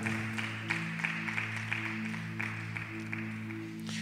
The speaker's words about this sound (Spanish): ¿Alguien puede darle un aplauso al Señor, a nuestro Señor Jesucristo? Aleluya.